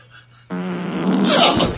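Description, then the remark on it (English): A single long, strained 'pushing hard' fart sound effect played by an Alexa voice assistant starts abruptly after a faint low hum, buzzing steadily and then turning rougher and more sputtery toward the end, loud. “Here comes a pushing hard fart.”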